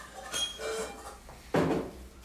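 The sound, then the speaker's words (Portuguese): A heavy iron cooking pot being handled, with a ringing metallic clank followed by a duller, louder thunk a second later, fairly quiet, with no talking. “você tem uma panela de ferro maravilhosa.”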